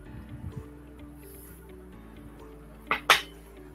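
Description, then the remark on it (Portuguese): Someone takes a sip of water from a glass. There is a low steady hum, then two short, sharp knocks near the end, like a glass being lifted and set down. “Vou tomar aqui um golinho d'água.”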